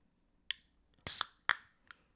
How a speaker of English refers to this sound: Oh, it was a two parter. It was a two parter. We had a little pop fizz and then we had the crack. It had season one and then season two of the beer.